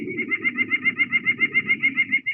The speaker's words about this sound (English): Um, here's the song of a white-breasted nuthatch. Okay.